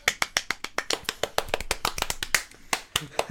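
Brisk hand clapping, around twenty sharp, crisp claps in quick, fairly even succession over a few seconds, with no one talking.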